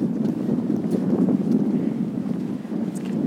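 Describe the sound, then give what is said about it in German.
Steady wind buffets the microphone outdoors, a constant low rumbling roar with slight gusty swells throughout and no voices. “Das Dürfen wir vielleicht auch, dass es Winden geht.”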